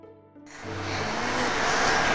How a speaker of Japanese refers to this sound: それでは、名古屋本社屋上からドローンを飛ばしている